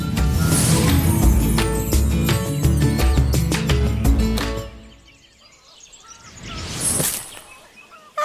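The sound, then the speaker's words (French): A dense chorus of chickens clucking and chattering inside a building at a poultry farm in Morbihan, France, fills the space for several seconds, then fades to near quiet, with a brief rushing swell near the end. “Ah, mes petites poulettes doivent être dans ce bâtiment. Je les entends jacter mais c'est complètement vide.”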